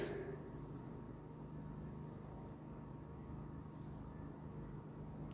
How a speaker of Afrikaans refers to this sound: Hoor jy die generator hardloop?